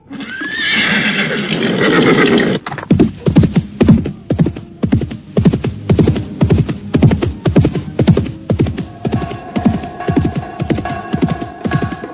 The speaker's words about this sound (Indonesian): Seekor kuda hitam yang gagah meringki keras ketika laki-laki setengah tua itu melompat ke punggungnya.